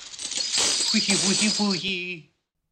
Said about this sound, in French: L'avare de Molière craignait sans cesse qu'on lui dérobe son patrimoine, et sa Saluste, joué par l'indémodable Louis de Funès, Aime se réveiller au son des pièces d'or.